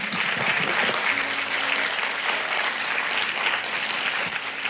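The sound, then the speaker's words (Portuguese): Sustained applause from an audience for the Lord God, a dense, steady wash of clapping that holds at an even loudness for several seconds without pause. “Queridos, você pode aplaudir o Senhor Deus nesse instante.”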